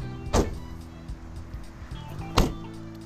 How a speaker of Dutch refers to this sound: Deurtje op slot.